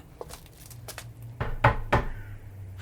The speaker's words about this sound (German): Der Junge rollte auf ein kleines Holzhaus zu, hielt an und klopfte.